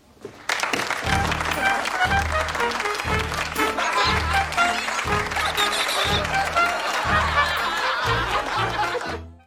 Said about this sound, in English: Poor Liz, she was so excited when she felt all that applause was for her.